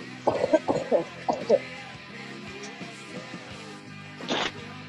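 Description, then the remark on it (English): A cluster of short coughs in the first couple of seconds, then quiet, followed by one more breathy cough near the end. “So I haven't, like, I actually didn't realize it until just now when I heard you coughing that you haven't oh.”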